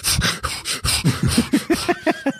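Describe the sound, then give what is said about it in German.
A voice imitates heavy, rapid panting while walking slightly uphill, a quick steady run of about ten loud breath puffs that turn more voiced and huffing toward the end, with no talking. “Da möchte ich in die Schädel nicht reingucken, weil ich auch immer schnaufe wie so ein Elefant übrigens. Ne? Wenn es mal leicht bergangeht, dann hörst du nur”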